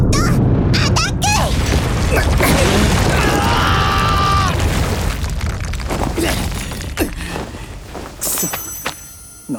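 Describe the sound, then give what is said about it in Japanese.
A heavy hammer attack smashes into the ground, setting off a loud, booming crash with a deep rumble and crumbling debris that slowly tapers off, followed by a few scattered clatters, as the whole ground collapses into a mess. “何なんだよ今の攻撃はってうわなんだこりゃグラウンド全部崩れてやがるぐちゃぐちゃじゃねえか”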